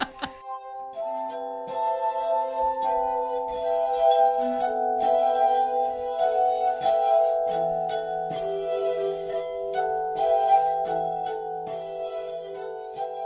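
A glass harp played by the Polish duo rings out in sustained, shimmering tones as two players layer overlapping sustained pitches and melodies, steady, with a few soft clinks and rubbing noises underneath.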